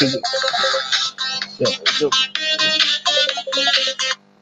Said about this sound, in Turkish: ah senin telefon canlandı. Evet.